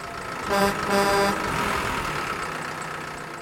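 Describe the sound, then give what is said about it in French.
A milk tanker truck's heavy engine rumbles steadily, with two short horn-like tonal blasts near the start, then continues as a low, even idle while the tanker collects milk from a farm. “c'est un camion citerne qui vient chercher le lait chez moi.”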